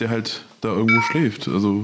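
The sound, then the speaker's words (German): A short electronic beep tone from a phone, a low battery warning, sounds partly over a person talking steadily in the foreground. “Das war mein Handy-Akku leer.”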